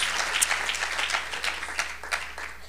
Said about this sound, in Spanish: Démosle un buen aplauso al Señor esta noche. Gloria a Dios. Gloria a Dios.